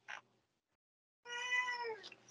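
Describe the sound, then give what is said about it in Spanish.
A cat lets out one long, drawn-out meow that slides downward in pitch, heard clear after a short brief noise and a moment of quiet. “Vale, hola gato.”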